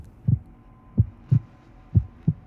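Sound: heartbeat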